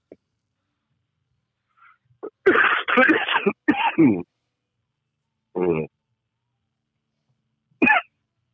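A cluster of harsh, rasping bursts of coughing and throat clearing, loud and close, followed after a pause by two shorter isolated coughs.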